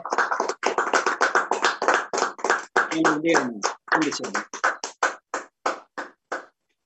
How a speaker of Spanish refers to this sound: Dile un fuerte aplauso al Espíritu Santo, hermanos, que el Señor los bendiga. Bendiciones.